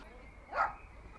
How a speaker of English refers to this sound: Uh, oh, yes, she does hear the dogs, but she knows their bark. If it's a hysterical or a bark which is not a normal bark, she knows that perhaps someone's trying to come to the door and she listens out and looks, to make sure there isn't anybody